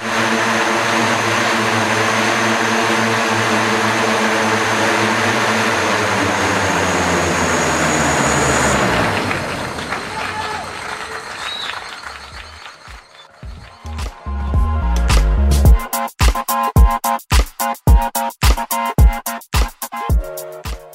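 A loud, droning four-propeller aircraft, with one propeller at each corner and ski-like landing gear, passes overhead during a final test flight in a controlled environment, its buzzing pitch sliding downward as it fades, followed by a stretch of sharp, irregular thumps and clatters as it comes down and lands.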